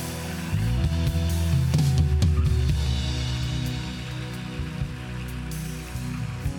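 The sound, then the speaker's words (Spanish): An audience at a church service applauding for people who have just accepted Jesus for the first time, in a steady, dense wash of clapping that holds for several seconds, with low sustained musical tones humming beneath it. “Denle un fuerte aplauso a ellos.”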